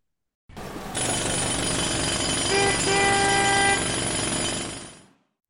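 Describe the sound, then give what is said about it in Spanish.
Loud, continuous pneumatic drilling from street construction work roars for about four seconds, with car horns honking briefly in the middle of the din. “este sonido podría ser perfectamente cualquier ciudad de España a dos semanas de las elecciones municipales, es decir, el ayuntamiento ahí gastando fondos para hacer obras, pero no, no, no es, eso.”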